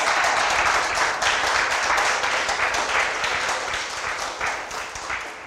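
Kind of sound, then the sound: crowd, audience hand clapping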